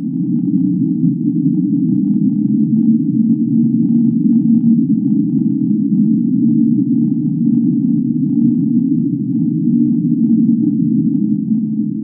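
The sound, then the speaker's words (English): An unexplained steady, low underwater whistle, picked up by a single hydrophone about 1700 miles west of Costa Rica, drones on without a break for the whole stretch, loud and unchanging, with a faint higher overtone humming above it and no voices. “It's whistle for obvious reasons. Mm-hmm. And it was picked up by a single hydrophone located about 1700 miles west of Costa Rica.”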